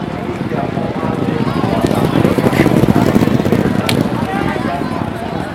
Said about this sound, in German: So, ich stehe jetzt hier an der Rennbahn. Meine Kollegen sitzen noch auf der Wiese. Und vor mir galoppiert es jetzt.